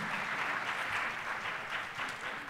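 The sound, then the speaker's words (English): A crowd applauds steadily for Southern High School and its principal, a dense wash of many hands clapping at an even level for the whole stretch, with no voices standing out above it. “If you would give them a, a round of applause.”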